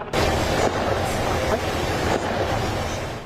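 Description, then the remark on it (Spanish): Several muffled AR-15 rifle gunshots fired in quick succession by ballistics experts in a controlled recreation of a shooting, caught by armored bullet traps, their sharp reports blurred into a loud, continuous rumbling roar with no voices. “Así sonaron las primeras detonaciones.”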